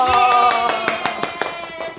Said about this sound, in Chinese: 我们终于下定决心。来尝试一下录 podcast 的拍手。